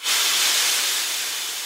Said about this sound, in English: They'd sent great jets of steam hissing into the air.